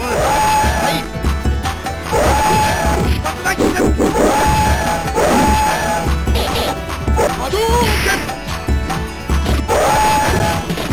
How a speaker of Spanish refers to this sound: capturar un fragmento de la pelea contra Dalsim, una de las primeras en Street Fighter 2, para que escuchéis cómo se oyen los elefantes